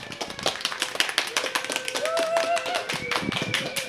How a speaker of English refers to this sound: And you are the lovely and beautiful on the inside and out audience for the very first time that we've recorded a podcast here at the Dickens Fair. Give yourself a round of applause for coming out.